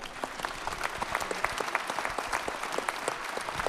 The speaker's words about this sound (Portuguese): Uma salva de palmas para o ator Jorge Serafim.